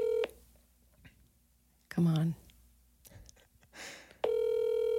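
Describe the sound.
An outgoing call rings over a speakerphone: a brief burst of ringback tone at the start, a quiet pause with someone muttering, then the loud electronic ring returns near the end.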